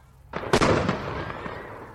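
A firework rocket bursting with a big bang: a sudden whooshing rush, then one loud sharp crack that fades into a rumbling, crackling decay over about a second and a half. No voices.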